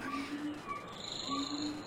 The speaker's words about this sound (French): Allez, petite ambiance sonore. On va, on va se porter un instant dans la forêt amazonienne, avec une végétation luxuriante.